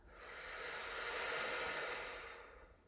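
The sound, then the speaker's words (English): A long, steady exhale through the mouth during a breathing exercise, following a big inhale and a little extra sip of air, a soft breathy rush that swells and then tapers away over about three seconds, with no talking. “It's a big inhale through the mouth, followed by a little sip more, and then a nice release through the mouth.”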